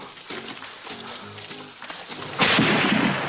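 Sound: gunshot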